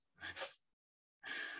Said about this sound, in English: Is you sneezing?